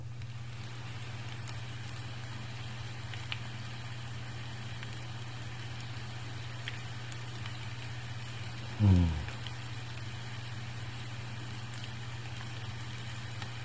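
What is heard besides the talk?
rain falling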